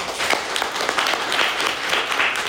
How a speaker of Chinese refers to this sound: 我想要借由现场一家人把掌声送给以上我想感谢的人。